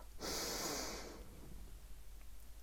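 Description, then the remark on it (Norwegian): A single deep, airy breath drawn in, loud at first and then tapering off into quiet background noise, with no talking. “Og det som alltid hjelper, altså gi meg sjøl noen dype pust.”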